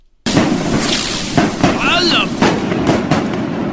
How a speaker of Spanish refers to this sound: Muy bien, muchachos, esta es la despedida eh, ya de nuestros compadres de Tultepec, que vinieron a tirarme cohetes, no sé quién me los invitó, pero aquí los tengo. Échenle, muchachos.